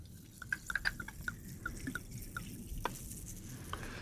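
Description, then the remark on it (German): Carbonated classic orange soda being poured from a bottle into small glasses, with a soft steady rush of liquid, crackling bubbles and scattered little drips and pops, fairly quiet and without any talking. “und äh, hier haben wir auch noch kleine Gläschen. Da wird das Ganze jetzt eingefüllt.”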